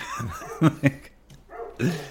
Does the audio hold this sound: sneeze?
no